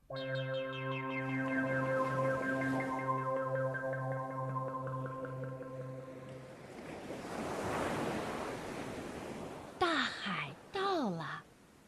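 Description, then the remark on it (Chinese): Sea waves surge in as a broad, hissing wash of surf after a sustained, pulsing musical tone fades out, followed by two brief high, wavering calls at the end. “这就是大海，大吧？”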